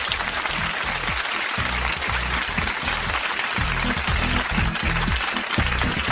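A crowd applauds steadily, a dense, even wash of many hands clapping that stays loud and sustained for the whole stretch, with no voices standing out above it.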